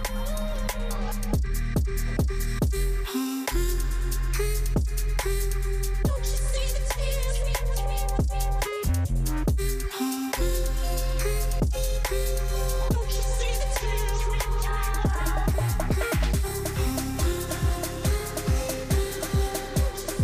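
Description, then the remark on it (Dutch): A loud electronic dance track from one of an artist's new records plays on its own, with a heavy bass line, punchy repeating beats and layered synth melodies, briefly cutting out for short breaks before the groove returns. “Um, een van die platen klinkt zo. Een beetje ook wel in dat hoekje van … zo net.”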